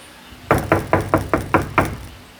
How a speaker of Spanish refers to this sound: Él estaba fuera. He aquí yo estoy a la puerta y llamo.